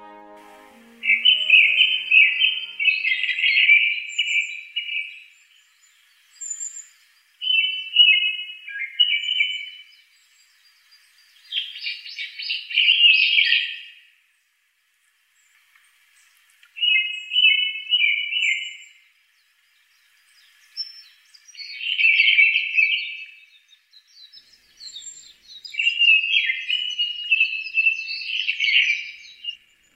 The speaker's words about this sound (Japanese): 東京都八王子市の高尾山今や観光スポットとして大人気です混んだメインの登山道を避け人の少ない裏道を歩くのが鳥に合うコツです谷を越えて黒つぐみのさえずりが聞こえてきました